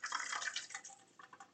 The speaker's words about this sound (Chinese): 好，装好四十 CC 的量以后，我们把四十 CC 的水哦用量酒器装好以后，倒进我们的这个锅子里面。现在火都还没有开哦。